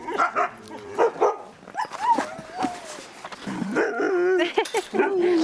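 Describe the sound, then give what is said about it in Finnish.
A pack of sled dogs barks excitedly before feeding, overlapping yips, whines and howl-like cries coming in rapid, uneven bursts that build into a continuous clamor. “Eli odotan oikeastaan, että koira rauhoittuu ja sitten mä annan sen ruoan. Just. Eli ei saa, ruokaa ei saa sillä riekkumalla hienosti.”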